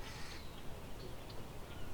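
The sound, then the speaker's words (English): Several brief, high calls from a few grackles, probably young ones, sound faintly, scattered irregularly across a quiet outdoor background with low rumbling ambience and no talking. “Seems to be a few grackles here.”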